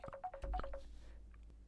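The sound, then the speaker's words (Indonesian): A phone rings with a short melodic ringtone, a quick run of bright electronic beeps that stops after about a second. It sounds fairly quiet, with no one talking. “Ya ampun ada telepon. Apa ini telepon dari Napoli?”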